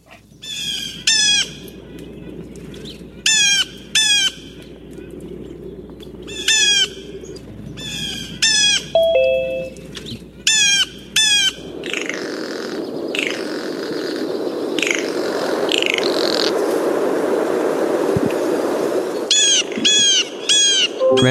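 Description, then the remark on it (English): Harsh, repeated blue jay calls ring out in short bursts over a steady outdoor background, then give way to a sustained screeching call, a blue jay's imitation of a hawk's scream, before the jay calls return. “In this recording, you will hear a variety of standard calls along with a good hawk imitation.”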